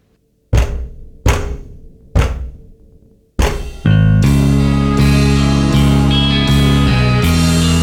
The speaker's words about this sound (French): À chaque fois que mes yeux se ferment, cet abruti frappe contre la porte.